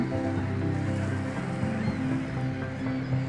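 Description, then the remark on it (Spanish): A steady wash of ocean waves rolls continuously at moderate volume, a broad hiss of surf with a low, sustained tonal hum underneath and no voices. “Escucha el movimiento de las olas.”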